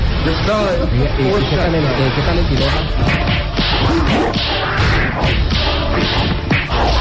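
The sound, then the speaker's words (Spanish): Fighting sounds from the zombie-killing video game Shaq Down, starring Shaquille O'Neal: a rapid, loud barrage of slaps, thwacks and crashing hits with swishing whooshes, mixed with grunting voices and game noise throughout. “Ahí está el sonido del videojuego, por si alguien está interesado.”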